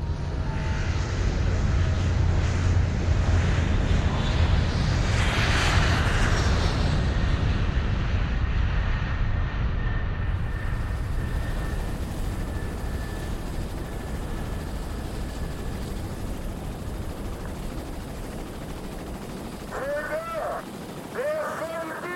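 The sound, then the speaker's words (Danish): A helicopter hovers overhead above Sunny Beach on the Black Sea in Bulgaria, its loud, steady engine and rotor wash filling the scene, swelling briefly early on before settling into a slightly softer, continuous drone with a few faint calls near the end. “Agent Piccadilly hænger i en helikopter over Sunny Beach ved Sortehavet i Bulgarien.”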